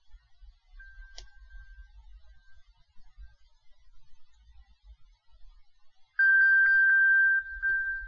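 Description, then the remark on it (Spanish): An Apple Watch find-device ping rings out: a steady, loud electronic tone with rapid pulsing beeps, starting suddenly after a faint, thin tone and quiet background rumble. “Y aquí tenemos para reproducir un sonido.”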